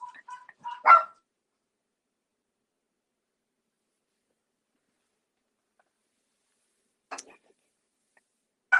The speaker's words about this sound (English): y'all, I'm so sorry. My dogs are barking.